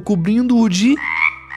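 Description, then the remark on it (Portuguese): A man speaks briefly, then loud frog croaking takes over, standing for the plague of frogs in Egypt in a Bible story told to children; a steady chorus of raspy, pulsing croaks that carries on after the voice stops. “Ai, oh, são rãs! O Egito ficou cheio de rãs e essa foi a segunda praga.”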